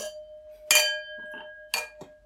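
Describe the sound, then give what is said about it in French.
Plastic tasting cups tapped together in a toast: two sharp clinks about a second apart, each with a short ringing tail, moderately loud, with no talking. “Santé. Moi, ça va pas trop trinquer.”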